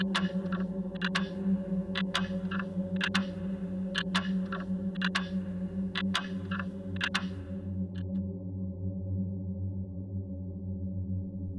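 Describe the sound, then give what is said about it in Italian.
A clock ticks in a steady, even rhythm of sharp paired clicks over a low, continuous droning hum, then the ticking stops and only the drone carries on. “Si sente un ticchettio.”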